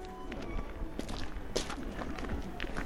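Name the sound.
footsteps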